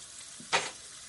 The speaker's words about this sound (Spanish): Más tarde, en la cocina de los White, Skyler friega los platos. Distraída, Skyler mira al frente y sigue fregando.